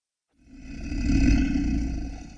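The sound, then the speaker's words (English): A deep, rumbling roar of a manticore, a Greek beast with a man's head, a lion's body and a scorpion's tail, swells in after a brief silence, building to a loud, sustained growl with gritty low end before easing slightly, heard alone with no voices. “The manticore is a highly dangerous Greek beast with the head of a man, the body of a lion, and the tail of a scorpion.”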